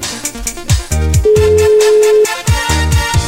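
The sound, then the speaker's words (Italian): A single steady ringback tone of about a second, from a telephone ringing on an outgoing call that goes unanswered, sounds over loud, rhythmic music with heavy, punchy drums; no one speaks. “E squilliamo, squilliamo e poi non rispondono, squilliamo!”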